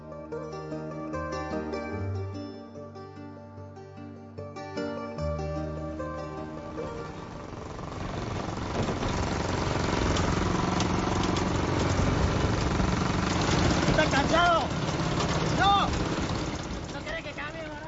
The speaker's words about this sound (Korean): 낡은 오토바이 엔진 소리가 울리는 길 위에 두 남자는 쉬지 않고 여정을 이어갑니다.